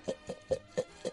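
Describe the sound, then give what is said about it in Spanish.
A small jar of folded paper slips, entries for a draw from Facebook and Twitter, shaken in five quick, evenly spaced bursts, each a dry rustling rattle, with no voices. “Bueno, tengo aquí el botecito ya con bastantes papeles porque ha habido mucha participación, hay que decirlo, tanto en Facebook como en Twitter, así que aquí está el botecito, que suene bien.”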